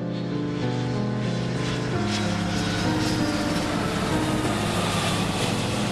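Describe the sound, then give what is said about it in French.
A propeller airplane engine drones steadily in flight, a loud continuous hum with layered low tones that shift slightly in pitch, heard alone without any talking. “Il était maintenant dans cet avion qui l'emmenait vers la liberté.”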